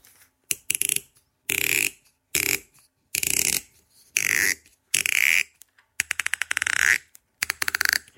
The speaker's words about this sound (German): Ich nehme mal oben den Korken raus.